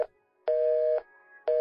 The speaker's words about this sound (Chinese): 男孩对这份感情情有独钟，一次次的敲通女孩的电话，每次以为是女孩的声音，令人失望的，则是工作人员的提示音。